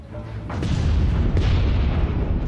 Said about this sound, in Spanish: El ruido de la explosión resonó a kilómetros de distancia. Las llamas del edificio del reactor iluminaban ahora el cielo nocturno.